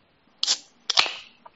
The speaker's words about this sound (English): Oh, who's cracking open a cold one? That's me right here.